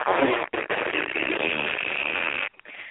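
A loud, buzzy raspberry noise blares from a noisemaker for about two and a half seconds, raspy and sputtering with a brief break near the start, then cuts off abruptly.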